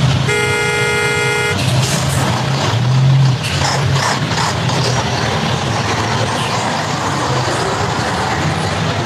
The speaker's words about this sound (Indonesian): Ya Allah, macet banget nih.